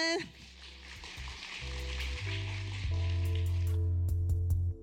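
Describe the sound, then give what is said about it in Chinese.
A crowd applauds to thank two speakers in a dense, steady wash of clapping that lasts several seconds, while low sustained tones swell underneath, like music coming in beneath the clapping. “那非常感谢就两位讲者带给我们精彩的分享，那我们再次掌声感谢他们。”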